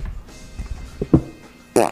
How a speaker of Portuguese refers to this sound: Quer soltar um peidinho pra nós